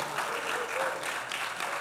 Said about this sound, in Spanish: Hay alguien aquí que ha estado casado más de 20 años. Levante su mano. Longer than 20 years. Más de 20 años. Yeah. yeah demos un aplauso.